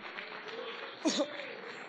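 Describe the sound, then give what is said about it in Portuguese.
A crowd applauds the Lord steadily, a dense and fairly quiet patter of many hands clapping throughout, with a brief voice calling out over it midway. “Você que recebe essa palavra profética, dê uma linda salva de palmas ao Senhor, aplauda bem forte.”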